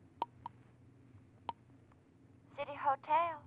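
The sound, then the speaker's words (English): A telephone being dialed from a drugstore on a corner: a few short, sharp clicks and tones spaced unevenly over a quiet line, followed by a voice beginning to speak toward the end. “You hurry out of the lobby and into the drugstore on the corner, where you make a phone call.”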